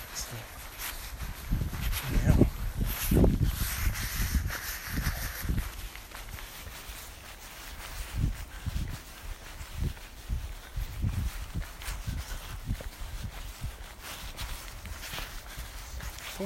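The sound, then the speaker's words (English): Steady footsteps crunch along an outdoor path by a lake at an even, quick walking pace, between rain showers with thunderstorms forecast, each step a soft low thud with some scuffing, while a voice talks over the first few seconds. “And as I missed a, an early walk, I'm going to fit in between rain and thunderstorms.”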